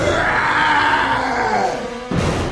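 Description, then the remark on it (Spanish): A loud, drawn-out howl of pain from a tiger after boiling resinous liquid is poured into its open mouth, sliding slowly downward in pitch for about two seconds before breaking off into a sudden rough, noisy burst. “El tigre Después de aullar con potentes gritos y retorcerse del dolor, estiró la pata y murió.”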